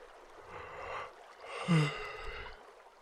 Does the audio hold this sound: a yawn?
yes